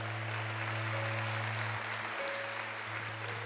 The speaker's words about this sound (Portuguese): Então vamos aplaudir. Eu vou te dar mais uma oportunidade para você aplaudir o Senhor. Glória a Deus!